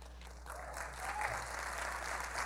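A church audience applauds the life of Jesus through a man's life, a dense wash of many hands clapping that swells slightly partway through and continues at a moderate, even level.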